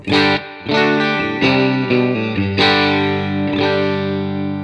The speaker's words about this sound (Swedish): vi börjar med stallmicken då på eh, rent helt enkelt. Yes. Det låter så här.